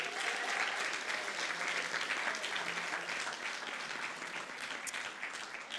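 Steady audience applause, a dense wash of many hands clapping at an even loudness throughout, with no voices standing out.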